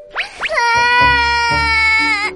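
A young cartoonish voice of a little fox character bursts into crying after a magic hat's smoke blackens its face: two quick rising sobs, then a long, loud, high-pitched wail that holds steady before trailing off, with soft low thumps underneath.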